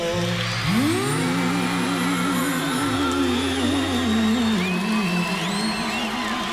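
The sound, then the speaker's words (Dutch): A live concert performance of a song, with full band music playing loudly and steadily while crowd noise and scattered cheering rise beneath it. “En vandaar dat ik eigenlijk de live versie nog iets straffer vind.”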